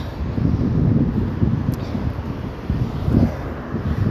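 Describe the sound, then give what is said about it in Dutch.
Cars rush past, a steady low rumble of traffic with gusty, wind-like roar that swells briefly a couple of times. No one speaks. “Ik hoor je niet, er rijden auto's langs.”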